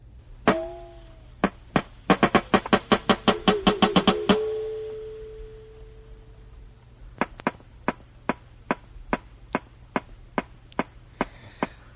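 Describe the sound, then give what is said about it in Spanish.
Walrus vocalizations underwater: sharp, loud knocks, first a few scattered, then a rapid rattling burst with a brief ringing tone, then a steady, evenly spaced series of knocks. No talking. “La morsa, llámala por su nombre, morsa. Morsa. Walrus. Este es el ruidito que hace.”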